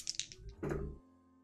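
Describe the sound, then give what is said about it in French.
Two dice are rolled: a few quick, light clacks followed by a short, denser rattle as they settle, then quiet. No one speaks. “Mais comme j'ai une règle qui m'impose de prendre un malus de cœur parce que j'ai été repéré justement par la suspecte, je ne jette que 2 dés.”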